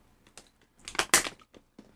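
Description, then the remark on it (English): Someone takes a swig of water, with a few soft crinkling clicks building into a louder burst of crackling, like a plastic bottle being squeezed, then fading into light taps. No talking. “Oh, sorry, I had to grab a swig of water there.”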